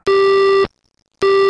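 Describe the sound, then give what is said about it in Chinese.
A telephone busy signal after the caller hangs up: a loud, steady, mid-pitched tone that stops for about half a second, then sounds again in an even on-off pattern. “对方的电话早已挂断，阿定犹握住不放，好像这便是大海浮沉的一个救生圈。”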